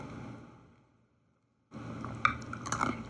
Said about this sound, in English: Wait a second. I need a sip of coffee. Hmm.